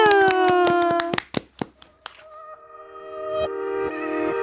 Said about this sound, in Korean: 네, 박수로 맞이할게요. 박수!